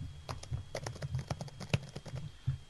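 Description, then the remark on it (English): Rapid typing on a computer keyboard while searching eBay for a doll, a quick, uneven stream of crisp key clicks with no one talking. “That's me feverishly searching eBay for the Stella Star doll.”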